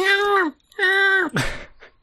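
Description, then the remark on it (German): A voice imitates a short baby cry: two sustained wailing bursts that drop in pitch at the end, followed by a quick descending whimper. “Ähm, oder kurzes Babygeweine oder sowas.”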